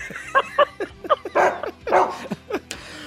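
A dog barks and yips in quick, uneven bursts, about eight or nine short calls with a couple of longer, rougher barks mixed in, with no talking.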